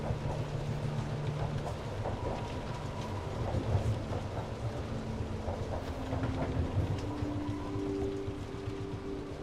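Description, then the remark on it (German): A steady rain shower hisses continuously as a train travels through it, layered over a deep, rolling rumble like thunder, with a low mechanical hum running underneath throughout. “Als der Zug schließlich aus dem Regenschauer hinausfährt und wieder ins Freie gelangt, fühlst du dich erfrischt und erneuert von der Erfahrung.”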